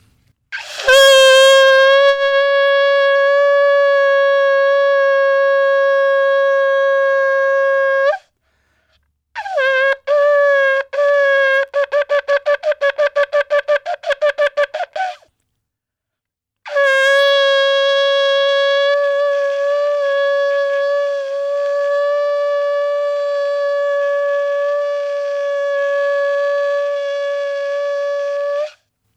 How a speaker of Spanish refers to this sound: Pero quisiera acá aprovechar los estudios de Radio Nacional para que la gente sí puede escuchar, aunque sea el sonido del shofar, y voy a tocar uno de los sonidos que se toca el shofar.